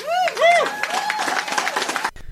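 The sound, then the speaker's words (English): A crowd bursts into applause, steady clapping mixed with rising whoops and cheers, loud for about two seconds before cutting off abruptly. “Woo, I'll clap on that too, and that's how we're going to end up this week's show.”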